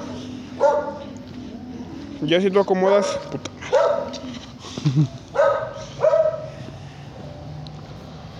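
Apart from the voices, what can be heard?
dogs barking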